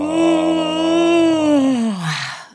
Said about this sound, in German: Okay, also erstmal gähnen.